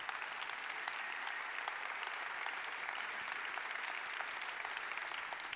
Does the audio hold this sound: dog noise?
no